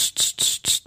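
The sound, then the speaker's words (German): A voice imitates a cicada's chirping with four quick, hissing, buzzy pulses in a steady rhythm, fairly loud, with no other sounds around it. “Das ist eine Zikade. Ich bin einer der besten Zikaden.”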